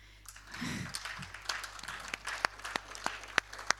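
Audience applause for a man who has just led a prayer rises quickly into a dense patter of many hands, with a few sharper individual claps standing out as it continues steadily at moderate loudness.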